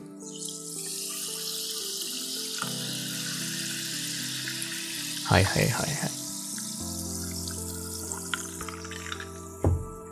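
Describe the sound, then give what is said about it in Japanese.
Plain sparkling water, being drunk, fizzes close to the microphone in a steady, bright crackling hiss, with a few louder bursts of clinking or sipping and a man speaking briefly. “ちょっと、炭酸水、飲みます。”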